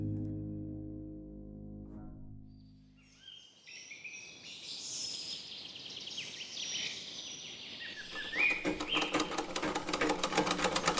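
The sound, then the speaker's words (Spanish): A steady humming tone gives way to a busy, chirping rustle, then a sewing machine starts up, rattling out fast, even stitches through the final few seconds. “Mamá estaba obsesionada con que aprendiéramos a coser a máquina.”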